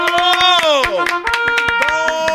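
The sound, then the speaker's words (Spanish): Steady, rapid hand clapping, a dozen or more sharp claps in an even rhythm, over a loud, sustained voice-like tone whose pitch slides down and then levels off. “Dale, apláudeme, apláudeme”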